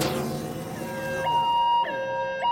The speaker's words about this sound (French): Mais qu'est-ce que c'est que ce bruit Oh non Un signal d'alarme Un signal d'alarme euh, un signal d'alarme